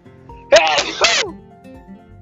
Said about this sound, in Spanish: Ay, perdón. Tuve que estornudar. Esto debe ser coronavirus.